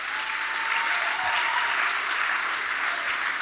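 A church audience claps steadily and loudly throughout, a dense, sustained wash of applause with no break, lasting several seconds.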